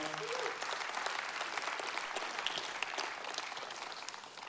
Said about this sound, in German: God bless you. Thank you. Applaus.